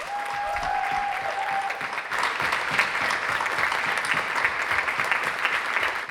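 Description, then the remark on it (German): Sustained audience applause at a school for everyone who stood as a candidate in a personnel debate, a dense wash of many hands clapping steadily and fairly loudly for about six seconds, with a faint whistle-like tone briefly near the start. “Und dafür nochmal einen riesigen Applaus bitte.”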